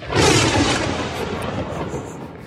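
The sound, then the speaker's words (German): A loud, rumbling thunderclap bursts in at once and rolls on as a broad, sustained roar that slowly eases off without fully fading. No voices are heard. “Also ist ein Donner oder was? Ja, Donner mit so einem, da also explodieren so einem Blitz.”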